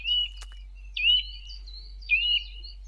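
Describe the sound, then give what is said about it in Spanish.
A nuthatch calls three times, each a short, bright whistled burst about a second apart, clear, with a faint low hum underneath and no voices. “Esto es un trepador.”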